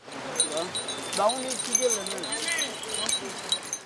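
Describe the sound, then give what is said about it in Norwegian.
Keys of all shapes and sizes jangle and clink around a man's waist in quick, irregular bursts, with a bright metallic chatter under a voice speaking throughout. “Rundt livet klirrer nøkler i alle former og fasonger.”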